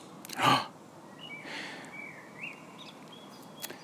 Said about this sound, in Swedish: Hör du fåglarna kvittar? Ja, det är oerhört fint kan verkligen, här.